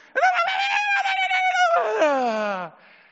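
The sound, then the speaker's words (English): A voice imitates the excited, high-pitched squeal of a cheering parent, holding a shrill wavering note for about two seconds before swooping sharply downward and cutting off. It is loud, with no other sounds. “it just goes like into this high pitch.”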